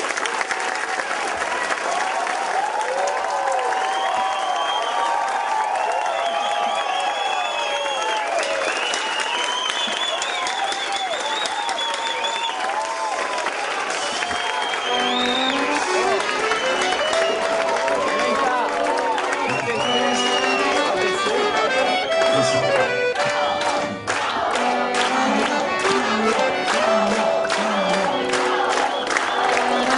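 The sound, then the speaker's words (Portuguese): A studio audience bursts into sustained applause for actor Paulo José as he finishes his participation in the studio, with cheers and whoops rising over the clapping, growing denser and louder about halfway through, with shouting voices mixed in. “Senhoras e senhores, peço aplauso para o Paulo José que acabou sua participação no estúdio.”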